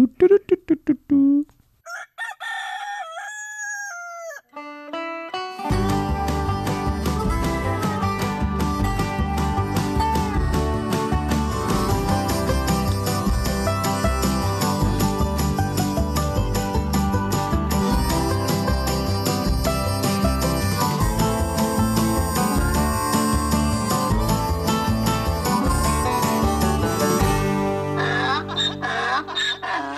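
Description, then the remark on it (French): A brief rooster crow opens, then a loud, full-band theme tune bursts in with a steady driving beat and plays continuously for about twenty seconds before fading at the end. “Et, on on parle générique.”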